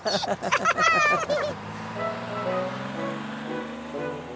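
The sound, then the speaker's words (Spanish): A bus honks its horn in a short burst of bright, wavering toots, then its engine drones on with a steady rumble as it drives along. “Ah, creo que esta vez tomaremos el autobús.”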